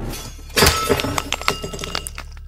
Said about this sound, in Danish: Og denne gang er det helt sikkert hendes dagdømmeri, der gør hende ufokuseret. For denne gang smadrer hun direkte ind i væggen.